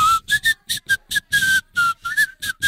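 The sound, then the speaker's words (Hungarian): Someone whistles a tune in a series of short, choppy notes with brief gaps between them, the pitch wavering slightly from note to note. No one speaks. “Nem, amit fütyültél.”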